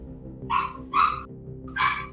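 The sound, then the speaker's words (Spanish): The neighbors' dog barks three times, short sharp barks spaced about half a second apart, with a low steady background hum and no one talking. “contestó primero el perro de los vecinos.”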